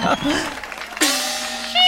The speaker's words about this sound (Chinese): 来宾掌声鼓励。